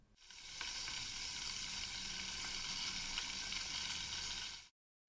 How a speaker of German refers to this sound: was ist das für ein Rauschen? Was passiert da im Wasserkocher? Sehen kann ich ja nicht viele, steigen ja keine Blasen auf. Ja, die Blasen sind trotzdem da. Man sieht sie noch nicht, sie sind einfach noch zu klein.